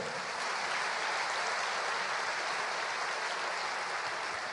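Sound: audience applauding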